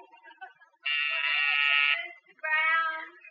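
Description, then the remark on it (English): An office intercom buzzer, part of a buzzer system wired with the button in another office, sounds twice, a steady harsh electric buzz of about a second followed by a shorter second buzz, loud after a moment of quiet background. “You put the button in her office and the buzzer in here in yours.”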